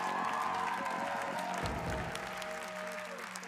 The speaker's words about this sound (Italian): Fate un applauso